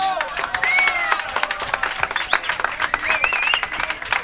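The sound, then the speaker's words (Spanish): A crowd bursts into loud, steady applause, dense clapping filling the space, with whoops and whistles rising over it throughout. “primero que le demos un aplauso fuerte”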